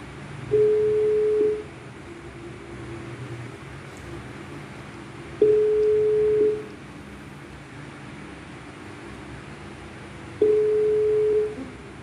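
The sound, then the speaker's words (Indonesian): A telephone ringback tone, as a call is placed to a guest in Jogja, sounds three times, each a steady mid-pitched beep lasting about a second, with long silent gaps between them over faint background hiss. “tanpa lama-lama lagi kita telepon aja lah ya, ya sumber kita yang kedua oke okay?”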